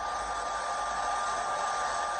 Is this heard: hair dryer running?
yes